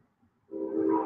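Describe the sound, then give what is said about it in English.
After a brief hush, a loud train horn blares from train tracks about five or six blocks away, holding a steady, sustained tone that swells in loudness and continues to the end. “The train sounds like it's right across the street.”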